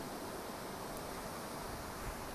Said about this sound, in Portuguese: Vou deixar vocês vendo um pouco de cada coisa, vocês veem o mar ali que tá forte que só, então fica me vendo ao mesmo tempo.